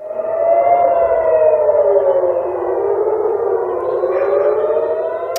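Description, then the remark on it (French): An air raid warning siren of the kind sounding again in the Middle East conflict wails steadily, its loud tone slowly sliding in pitch as it sustains throughout, with no voices present. “C'est ce genre euh, de sirènes qui sont malheureusement de retour euh, dans le conflit du Moyen-Orient.”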